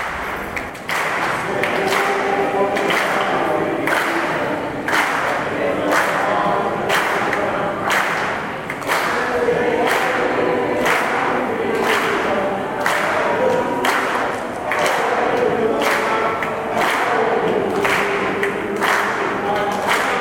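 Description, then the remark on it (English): Protesters outside the House chamber sing a gospel song, backed by loud, steady rhythmic handclaps on every beat, continuing for the full length at an even, strong level. “Um, I guess it would have been Monday with protesters singing gospel music.”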